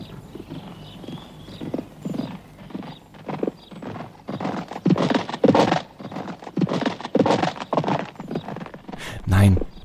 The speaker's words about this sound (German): Das war kein Geräusch. Das war ein Galoppieren.